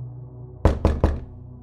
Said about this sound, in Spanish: Eran alrededor de las 11.10 cuando escuché que tocaron la puerta de la oficina.